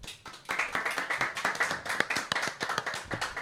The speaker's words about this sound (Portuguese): Então, quero também pedir uma salva de palmas à nossa plateia imensa.